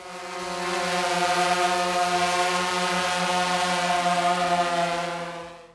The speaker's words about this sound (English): A buzzing sound caught his attention, and he scoped ahead to find a small UAV hovering over the compound.